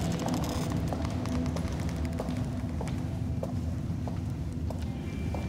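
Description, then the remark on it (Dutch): Steady footsteps tap at an even walking pace through the rooms of a building made as an ensemble of chambers for sound, each step sharp and slightly reverberant, over a constant low rumbling background with no talking. “In elke kamer klinken onze voetstappen anders.”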